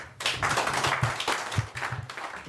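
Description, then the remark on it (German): A concert audience applauds warmly to welcome the band, a dense, steady wash of many hands clapping at once with no pauses, holding an even loudness throughout with no voices heard. “Bitte begrüßen Sie mit warmem Applaus das ….”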